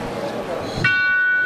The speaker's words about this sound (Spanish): Eso era la campana de las tres caídas. Campana tubular.